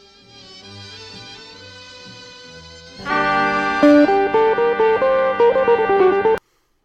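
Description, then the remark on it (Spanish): A recorded song plays with no one talking: a soft, droning opening for about three seconds, then a louder, bright melodic section with quick stepping notes that stops abruptly. “ese es un, es un tema de, de verde. Vamos, vamos a escucharlo.”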